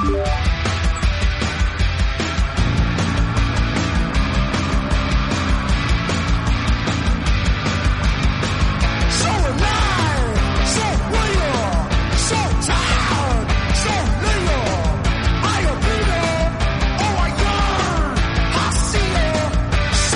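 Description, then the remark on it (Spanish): A loud, dense rock song by an English band plays throughout, driven by a steady pounding drum beat under thick, full-band instrumentation, with strained vocal lines rising over the mix in the second half. “Estos son los ingleses …, que sonarán este viernes 18 de marzo en el Parque Bicentenario de Cerrillos. Lo que oyes es ….”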